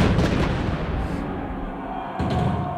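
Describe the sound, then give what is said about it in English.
Heavy cannon fire booms out loud, with a rolling low rumble between blasts and a second burst of fire near the end, as a few cannons are fired on the battlefield at a reenactment of the Battle of Waterloo. “And then a foot warning, off went a few cannons in the corner.”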